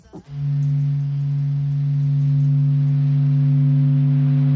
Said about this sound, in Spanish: Eh, pero, por ejemplo, esto te va a sonar más. Esto es el sol.